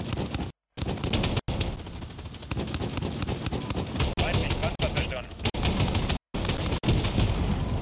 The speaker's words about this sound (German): Ziel im Visier, bereithalten für Beschuss. Greife mit 30 mm geschossen an, jetzt geht's rund. Feuer, Feuer,